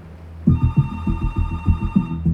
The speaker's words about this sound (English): the phone rang and it was him.